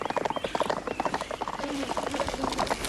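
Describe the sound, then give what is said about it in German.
Horse hooves clip-clop in a quick, steady rhythm, several hoofbeats overlapping as more than one horse walks, with a faint murmur of background noise; Peter and Bob are riding horses through Lydia Green's vineyards. “lernten Peter und Bob die Weinberge Lydia Greens auf dem Rücken von Pferden kennen.”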